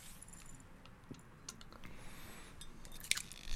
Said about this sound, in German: vor mir steht allerfeinstes CBD-Öl, von dem ich jetzt mir noch ein paar Tropfen genehmigen werde